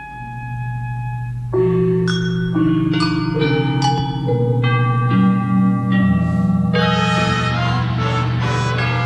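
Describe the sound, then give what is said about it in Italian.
A full orchestra bursts in after a quiet sustained opening, playing a loud tutti refrain of dense, shifting chords that swell steadily to the end, with no voices. The refrain separates the various sections of the piece. “Qui c'è di nuovo il tutti. Una specie di ritornello, diciamo, che separa le varie le varie sezioni.”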